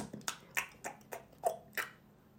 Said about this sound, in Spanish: Uh, ¿no te molesta que la gente mastica así?